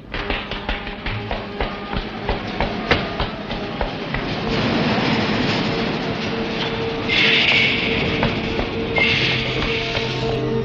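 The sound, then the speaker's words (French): A subway train rattles along with rhythmic clattering wheels, then settles into a steady rumble broken by shrill metallic squeals. No one speaks. “Il vient de sortir de l'immeuble et a pris le métro.”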